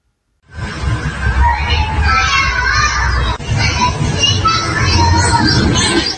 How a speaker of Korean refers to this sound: 지난 7월 이 시설에서 울부짖는 소리가 나자 지나가던 주민이 녹음한 겁니다. 인터뷰 인근 주민 나쁜 큰 소리가 들리길래 했죠. 장애인 보호시설인데 저런 소리가 들리니까.